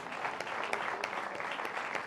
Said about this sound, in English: Praise the Lord. Praise the Lord. Come on, give the Lord a clap offering of praise.